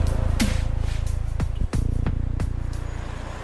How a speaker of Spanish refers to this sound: Si mi mirada se desvía más allá de las enredaderas, está el caos. Una corriente interminable de autos que transitan una de las avenidas más tristes y grises de la capital.